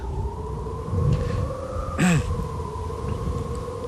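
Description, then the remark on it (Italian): A steam locomotive whistle holds a long, steady two-toned blast from start to finish over a low rumbling background, broken midway by a brief sharp burst of noise; the whistle of a locomotive entering the station at Auschwitz-Birkenau. “Io sento ancora il, la sirena o il sibilo, il fischio della locomotiva quando entrava in stazione.”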